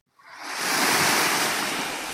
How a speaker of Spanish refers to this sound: En este vídeo, en el que estoy nadando en Formentera, puedes ver un estilo distinto en la relación del nadador con el agua. Ya no hay lucha, ya no hay esfuerzo, hay simplemente un fluir.